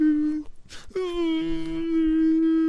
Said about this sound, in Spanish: Ella estuvo maltratando al hombre. porque qué ella llora?